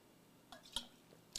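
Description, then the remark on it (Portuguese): Someone takes a quiet sip of water: a few soft, wet mouth clicks and a small slurp spaced over a second or so, with no talking. “Toma um gole d'água que você come a boca.”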